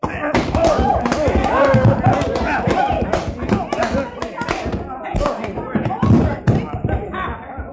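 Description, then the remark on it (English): A heavy punch to a man's head lands with a dull thud, followed by his body hitting the floor, amid a busy, scuffling commotion with voices throughout and several more muffled thumps near the end. “you knocked his head right off his shoulders, you did.”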